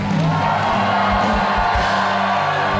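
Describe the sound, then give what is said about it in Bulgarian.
An audience shouts out loudly together, a dense, sustained roar of many raised voices with whoops and yells blending into one continuous wall of sound. “Защо не извикаш като гладен човек?”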